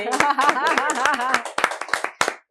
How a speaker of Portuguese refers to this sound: uma salva de palmas